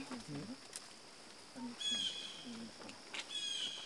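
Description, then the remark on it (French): Two drawn-out, harsh bird calls ring out clearly from a blue jay, spaced a second or so apart, while soft, muffled voices murmur low in the background. “Le oiseau qu'on entend, c'est un jet bleu. The bird, it's a blue jay.”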